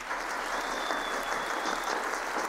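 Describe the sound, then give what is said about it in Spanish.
Steady applause from a group, a dense continuous patter of many hands clapping at an even level throughout, with no voices standing out. “Ah, yo quiero aplaudirse, man. Sí, sí, yo me autopalmeo.”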